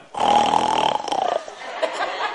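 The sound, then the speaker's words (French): A voice imitates snoring: one drawn-out, gravelly rasp of about a second, loud, trailing off into a softer rough breathy tail. “Ah, j'ai dit, pas en plus, j'avais demandé avant de partir de toi, j'espère que tu ne ronfles pas”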